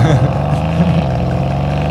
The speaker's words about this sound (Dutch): Ten ondergaan van de atmosferische motor. De V8, de brullende V8.